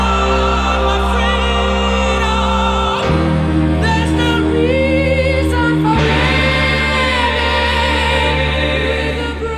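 A loud, full-sounding rock song intro with sustained, layered chords that shift twice along the way, playing continuously with no one talking over it.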